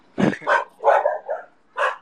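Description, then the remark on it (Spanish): Small dogs bark and yip sharply, about five high-pitched yaps in quick, uneven succession, with no one talking over them. “duerman esos perritos.”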